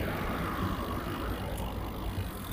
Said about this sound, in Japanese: あ、車が来て。